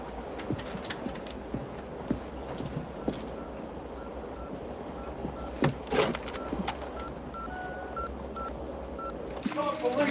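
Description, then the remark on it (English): A telephone keypad beeps out a quick series of short touch-tone dialing notes, moderately loud, over a busy, rumbling background with faint murmuring voices and occasional clunks. “The phone.”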